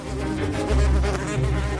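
wasp buzzing

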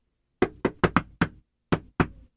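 knocking on a door

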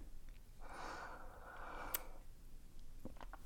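sipping water

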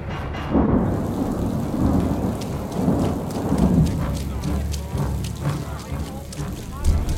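heavy rain downpour

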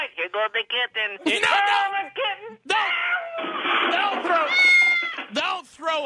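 cat meowing

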